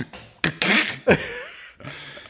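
A Hasselblad X1D medium format camera shutter fires with a few sharp, breathy mechanical bursts and a longer whirring clack in between, fairly loud, with no talking.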